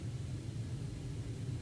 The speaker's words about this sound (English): That's that's a plane flying over. I live on uh, east side. Planes always fly over, landing on Pe- landing uh, Peterson uh.